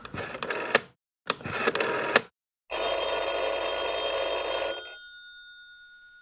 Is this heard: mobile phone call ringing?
yes